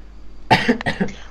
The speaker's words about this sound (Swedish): medan … hostar lungorna ur sig